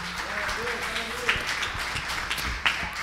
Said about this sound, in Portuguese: Amém e amém. Vamos aplaudir Jesus com alegria no coração.